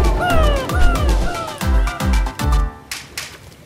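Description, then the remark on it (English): Shrill, gliding seagull cries ring out near the start over a steady, thumping bass beat, then fade as the pulsing rhythm continues alone. “Don't forget, you need a seagull to get home!”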